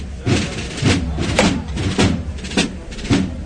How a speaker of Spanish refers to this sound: Y el golpe de martillo que nuevamente hace arriar el paso cuando ya estamos muy cerquita de llegar nuevamente a su casa, a la capilla del santuario.